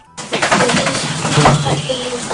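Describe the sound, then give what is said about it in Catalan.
A dog lets out a fairly loud, drawn-out yawn with a throaty, guttural vocal sound lasting about two seconds. “sent un gos badallant”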